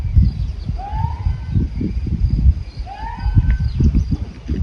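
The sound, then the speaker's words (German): Two shrill, rising whistles from goatherds on Socotra sound about two seconds apart, thin, over a steady low rumble of wind or ambient noise outdoors; the herders whistle to keep their sheep, goats and cows together. “Mit den Pfeiftönen und Rufen halten sie das Vieh, Schafe, Ziegen und Kühe zusammen, das überall weidet und gern kilometerweit verstreut ist.”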